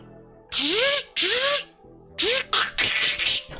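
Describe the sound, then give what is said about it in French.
A large defense turret above a door whirs up in three quick bursts, each whine climbing in pitch over a harsh buzzing hiss, then settles into a loud, rattling, sustained grind. No one speaks. “T'entends juste le. L'espèce de revving du gros”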